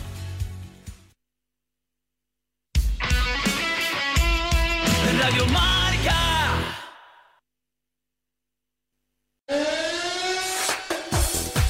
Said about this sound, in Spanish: Suena suene la sirena porque ya tenemos el turno de las cuatro y cuarto a puntito de empezar